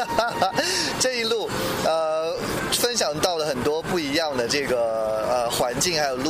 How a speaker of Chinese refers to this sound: 然后各位可以听到，在这个车窗外面是来自老挝的风。